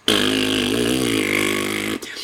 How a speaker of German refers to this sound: flog durch den Orbit und furzte immer noch.